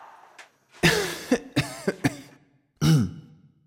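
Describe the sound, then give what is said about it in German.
A loud series of coughs and throat clearing from a butler with a slight cold: a harsh cough burst, a few short sharp hacks, then a final gravelly throat-clearing cough after a brief pause. “so klingt es wenn Ihr Butler leicht erkältet ist.”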